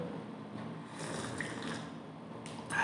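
slurping hot coffee

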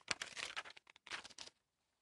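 turning pages of paper

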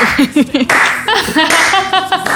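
slow clapping

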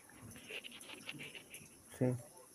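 dog panting and whimpering

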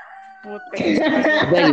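rooster crowing

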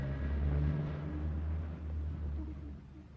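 truck engine rumbling

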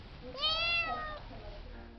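cat meowing

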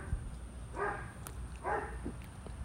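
dog barking

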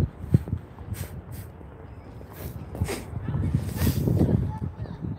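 dog growling and whimpering

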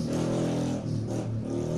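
motorcycle revving past outside

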